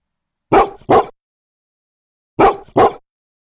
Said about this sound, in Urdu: گائے کئی دفعہ آگے بڑھی کہ بھوسا کھا سکے اپنا کھانا کھا سکے مگر کتا اس کو دیکھ کر زور زور سے غراتا اور بھونکتا رہا